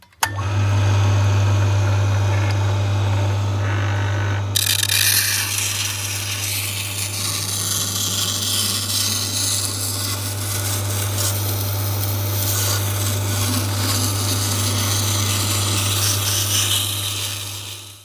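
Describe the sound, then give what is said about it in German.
A steady motor hum runs throughout as all the knives are ground on a coarsely prepared round grindstone on a machine, with a harsh, continuous scraping hiss starting a few seconds in and persisting to the end. “Man schleift erstmal den Schleifstein vor, so dass er praktisch grob ist, schleift dann alle Messer, also so haben wir es gemacht, haben dann alle Messer geschliffen richtig mit diesem grob vorbereiteten runden Schleifstein an der Maschine.”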